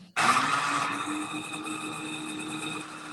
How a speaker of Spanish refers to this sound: Ahora lo, que voy a hacer es pasar a licuar toda mi pulpa. Se va a escuchar un pequeño ruido, pero no se preocupen. Sí, no se preocupe Ya lo está poniendo para los que no nos ven, este ya lo está poniendo en la licuadora.